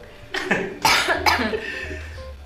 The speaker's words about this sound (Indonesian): aduh batuk